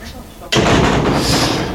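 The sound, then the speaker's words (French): A metal door at the entrance to a brewery slams shut with a sudden, loud bang after a brief quiet moment, followed by a sustained burst of harsh, clattering noise. “Attention à hein, la porte qui claque, c'est métallique, ça fait du bruit, ça risque à tout moment d'exploser.”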